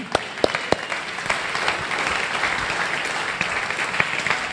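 An audience claps steadily for a few seconds to applaud the person who prepared a video shown during a church teaching series, a dense wash of many hands with a few sharper individual claps standing out near the start.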